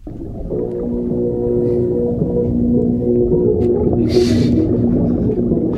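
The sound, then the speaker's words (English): Muffled rock music played underwater for scuba divers, its sustained tones dull and bass-heavy with the highs swallowed, continuous and fairly loud, with a brief hissy splash of noise near the end. “this is uh, audio we've been sent through from Rock and Roll Scuba. Pretty great. It's, you can make it out. You can make out the tunes.”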